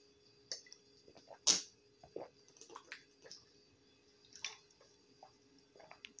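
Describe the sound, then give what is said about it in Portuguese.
Someone interrupts a joke to take a quiet sip of water, with small wet clicks, a slurp and soft swallowing sounds scattered over a few seconds, no one talking. “Vou ter que tomar água, vou ter que interromper a piada para tomar água.”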